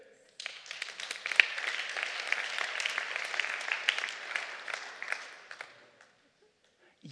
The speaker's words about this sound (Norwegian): Dere, kan dere klappe for dere sjøl?